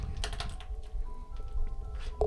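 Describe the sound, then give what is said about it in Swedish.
Someone types a message in a group on a keyboard, a flurry of quick, irregular key clicks with short pauses between bursts, over a faint steady background hum and no talking. “Jag skriver i någon grupp.”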